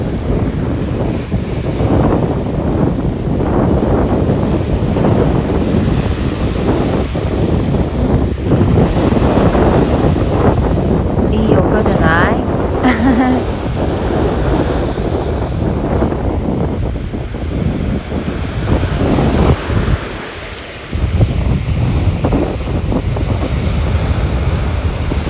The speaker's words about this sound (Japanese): いい波の奥じゃないですかこれ 背景かなちゃんと音声が入っているのかはわからないんですけど私の声もちゃんと聞こえているのかはわからないんですけどまあよければ波の音をお楽しみください。